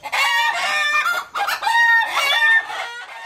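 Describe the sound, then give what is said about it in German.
Chickens clucking and a rooster crowing, a busy, overlapping flurry of high squawks and calls that fills the whole moment without pause, with no one talking. “Jo, sie sind all ganz hibbelig, die Höhner, und auch die Duven, die Mucksig als Smuck, denn am 22.”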